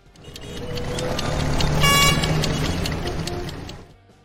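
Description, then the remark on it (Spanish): Busy street traffic rumbles steadily while several car horns honk, with one longer, louder blast in the middle, swelling and then fading out at the end. “Vamos a ver cómo está la situación en el tránsito para que no te coja el día.”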